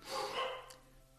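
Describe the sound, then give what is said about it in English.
A dog gives a short bark or two, muffled, then fades into quiet background noise. No one is speaking. “Sorry about the dogs.”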